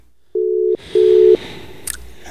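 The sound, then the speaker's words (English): Two steady, loud electronic tones beep in sequence, each lasting under half a second with a short gap, a telephone ringback while a call to a guest in South Africa connects, followed by faint background noise and a brief click. “Uh, I don't know if I have him on the line right now. Let me try one more time.”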